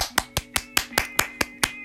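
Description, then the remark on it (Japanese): Steady hand clapping in congratulation, nine sharp claps at an even, brisk pace, fairly loud, with a faint background hum and no talking. “みんな、みんな拍手。ちょ、スマホ置きますわ、いく。”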